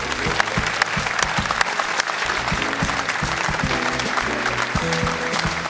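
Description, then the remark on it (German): A crowd at Stahlwerk Doppelpass applauds steadily to thank donors, a dense wash of many hands clapping at an even loudness for several seconds, with a few sharper individual claps standing out and no one speaking. “Einen kräftigen Applaus bitte.”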